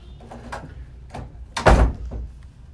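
A door opens with a few light clicks and rattles, then a heavier thud as it swings and settles, followed by quieter bumping, as a new student walks in.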